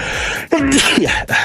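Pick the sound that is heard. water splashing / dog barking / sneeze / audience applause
sneeze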